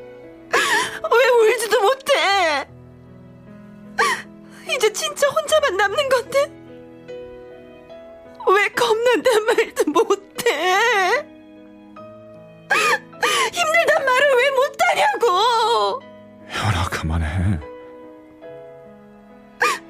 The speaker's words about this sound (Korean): 저 그래도 우리 아버지 떠나는 길에 이렇게 울어주는 사람도 있고 다르다.